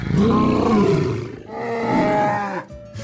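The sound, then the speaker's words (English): A deep, growling roar from a large wild cat rises and rumbles in two long, loud bursts, dropping off near the end, with no talking. “I was here a thousand years ago when a young shepherd boy named David watched over his flocks, became an exceptional minstrel, and fought wild animals to protect his sheep.”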